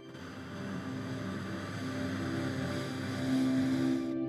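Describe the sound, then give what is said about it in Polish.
A slow, steady ujjayi (victory breath) inhale taken with the mouth closed, a soft hissing rush from the throat that sounds almost like ocean surf, held evenly for several seconds over a faint low hum, with no talking. “I na sam koniec postaraj się wykonać ten sam oddech zwycięstwa, ale z zamkniętymi ustami, słysząc delikatny szum wydobywający się z gardła podczas każdego wdechu i wydechu.”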